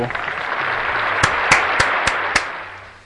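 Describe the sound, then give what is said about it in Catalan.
A short burst of applause for a correct quiz answer, a dense wash of clapping with several sharp, evenly spaced louder claps standing out in a quick rhythm before it fades. No one speaks. “Aplaudiments, si us plau.”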